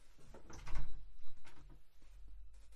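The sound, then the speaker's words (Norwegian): A door is opened, with a few soft knocks and a scraping rattle over low rumble, a brief handle-like clatter in the middle, then quiet shuffling. “Kan ikke du åpne døra for å gjøre det?”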